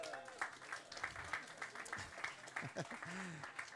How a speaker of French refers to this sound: Vous ne le savez pas, mais vous avez applaudi plein de monde juste maintenant parce qu'il y avait le groupe de jeunes qui, vendredi soir, à la fin de leur soirée, euh, ils ont mis les tables en place. Et puis une équipe qui a décoré.